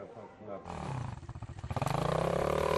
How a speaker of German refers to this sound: Motocross-Training für die Jüngeren auf dem Gelände der Nachtwölfe.